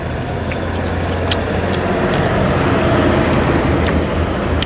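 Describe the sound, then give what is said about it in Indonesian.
A large Pertamina fuel tanker truck rumbles past on the road, its steady low engine drone and road noise filling the scene continuously. “truk Pertamina”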